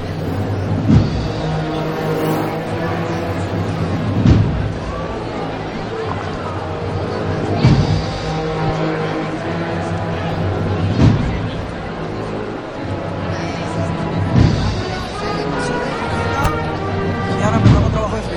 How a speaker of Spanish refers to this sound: empiezan a moverse el paso a los sonidos de la marcha a la gloria, interpretada por esta agrupación musical que llega desde Baeza, desde la ciudad patrimonio de la humanidad y que se planta hoy aquí en la carrera oficial de Jaén.